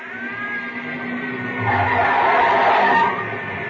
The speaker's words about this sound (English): Watch out, Joe. Joe! Watch out, there's another car coming in.